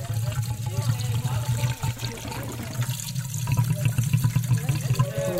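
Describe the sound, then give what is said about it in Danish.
Liquid pours steadily into a container, a continuous splashing gurgle running the whole time at moderate loudness, with a low hum and some faint talk mixed underneath. “Nu skal det ikke rende over i den varme her.”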